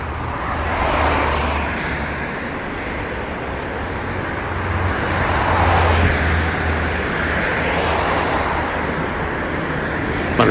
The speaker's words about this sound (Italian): Quindi ad esempio questi pochi minuti che vi ho fatto sentire di rumori ambientali, che in questo caso era traffico urbano,